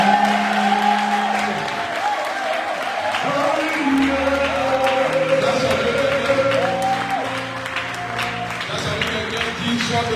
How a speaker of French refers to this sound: Encore, Seigneur. acclamations de la gloire du Seigneur.